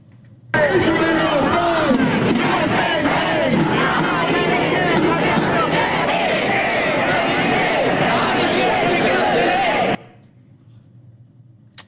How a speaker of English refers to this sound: We're going to play uh, back all the way, chanting against LBJ in the war, and then what we're hearing on the streets today.